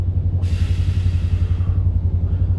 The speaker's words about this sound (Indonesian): lo anjing nih motor berisik banget duduk duduk duduk duduk lo nggak ngerti apa orang yang lagi rekaman podcast nih